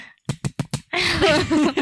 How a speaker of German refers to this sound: Genau, und dann startet unser geliebtes Intro. Jetzt muss so klatschen. Jetzt!